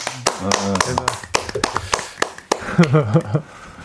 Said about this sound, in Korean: 지금 밖에도 팬분들이 오셔서 네, 지금 박수 쳐주고 아, 네. 계시고 열심히 응원해주고 계시네요.